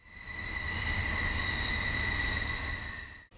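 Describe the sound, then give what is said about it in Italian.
The brakes of an old orange train screech in a long, steady, high-pitched squeal, with two shrill tones held over a loud metallic rumble. It swells in, holds for about three seconds, then cuts off. “Come odioso è lo stridere dei freni del vecchio trenino arancione.”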